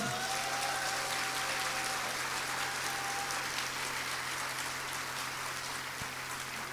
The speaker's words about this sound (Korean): 박수 한번